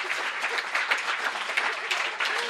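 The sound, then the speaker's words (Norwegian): An audience on NRK P3 radio applauds Silje Nordnes for leading 3-2 over Brede Aase, clapping steadily in a dense, continuous patter of many hands with no pauses, fairly loud throughout with no voices standing out. “Kan vi få en applaus for det, eller?”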